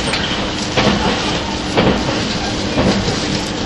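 Steady roar of a 651 series Super Hitachi 66 express train running on rails from Sendai to Ueno, heard from inside, with rhythmic rail-joint thumps recurring about once a second over continuous rumbling noise; no voices.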